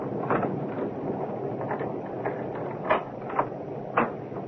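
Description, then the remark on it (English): A key rattles and turns in a lock, then a front door is opened, with a few sharp metallic clicks and clunks over a steady rustling background. No one speaks. “Oh, it's locked. Uh, do you have a front door key”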